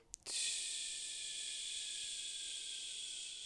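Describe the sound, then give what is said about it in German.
A voice imitates the hiss of air escaping from a car's flat tire as it was heard while accelerating: a steady, bright hiss that starts after a couple of short clicks and holds evenly, fairly loud, for about three seconds with no talking. “ich habe einen Platten, was muss ich jetzt machen”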